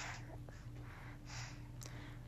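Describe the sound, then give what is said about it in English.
Heavy, raspy breathing from someone in the background who is about to go to sleep comes in a few slow, airy bursts, with a snort-like edge, low in the mix over a steady low hum, with no talking. “in the background breathing like a fat man.”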